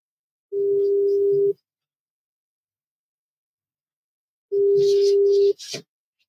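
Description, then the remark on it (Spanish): A steady telephone dial tone sounds in two one-second bursts separated by a long silent pause, clear, with a brief click and rustle right after the second tone. “¿Quién están haciendo un, un, una llamada?”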